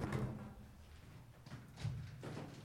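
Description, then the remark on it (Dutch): A door is opened for an arriving visitor, with a few soft clunks and rattles of the handle and frame spread over a couple of seconds, fairly quiet with no one speaking. “Hé, hey, daar komt bezoek. Ja, je moet de deur even open doen.”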